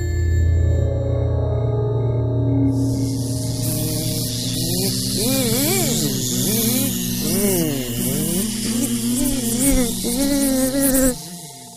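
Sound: flies buzzing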